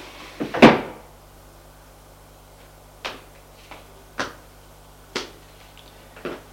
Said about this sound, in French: Il va vers le bureau. Ouvre un tiroir. Ouvre un tiroir pour prendre une clé.